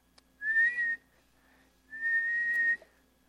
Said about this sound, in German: in einer Schwimmweste und an dieser Schwimmweste ist eine kleine Pfeife. Und sie schwimmt zu dieser Person. Und sie schafft es gerade noch und sie hat noch das letzte bisschen Atem, was in ihren Lungen ist, benutzt sie, um in diese Pfeife zu pusten.